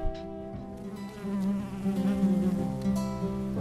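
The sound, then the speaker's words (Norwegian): A bee buzzes steadily, a continuous droning hum with slight wavering in pitch and loudness, heard alone without any talking. “Nei, hva er det her? Der, ja. døde lille bie.”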